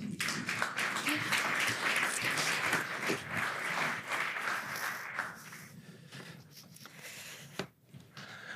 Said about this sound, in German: Willkommen, Laura und Pip. Euer Applaus.